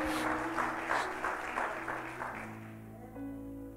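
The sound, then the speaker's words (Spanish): A church audience cheers and shouts to Jesus with rhythmic clapping over sustained keyboard chords, the roar loud at first and gradually easing as the music holds on. “Padre, háblanos en esta hora en el nombre de Jesús y toda la iglesia dice amén y le da un grito fuerte de amor y pasión a Jesús.”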